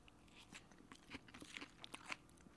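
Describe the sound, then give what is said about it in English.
Crisp crunching of romaine lettuce, used in place of corn chips with queso and spicy black beans, being chewed: a quick run of irregular crackly bites and snaps with no talking over it. “So you can hear the crunch of that romaine that substitutes in for corn chips.”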